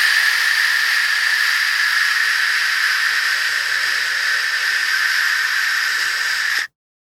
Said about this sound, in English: We even buy machines and download apps to create white noise.